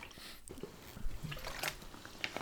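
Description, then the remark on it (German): Soft sips of water with small wet mouth sounds and a quiet swallow, spread over a couple of seconds with no talking. “Warte mal, ich muss mir erstmal einen Schluck Wasser trinken und mich seelisch darauf vorbereiten.”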